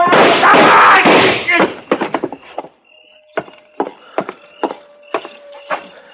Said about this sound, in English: Well, uh, you two didn't miss him. I don't know which one of you fired first, but either bullet would have done it.